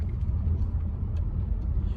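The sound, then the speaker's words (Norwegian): A steady, low engine rumble of a car on the move, continuous and fairly loud, like riding inside the vehicle, with faint scattered rattles and no clear voices; one of two cars carrying five journalists from Mazar-i-Sharif over the mountains to Kabul. “Vi står opp klokken kvart på fire om morgenen, setter oss inn i disse to bilene som skal ta fem journalister,”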